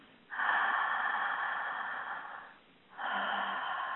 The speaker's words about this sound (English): just close your eyes for a minute and take 3 breaths mouth or nose